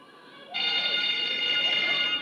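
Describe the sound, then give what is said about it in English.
The 9:30 school bell starts abruptly and rings continuously, marking the start of morning break at an ordinary school in a suburb of Bordeaux in 1995, a loud, steady, high-pitched electric jangle that carries on without a break to the end, over a faint background murmur. “The 9:30 bell marks the start of morning break at the ordinary school here in a suburb of Bordeaux.”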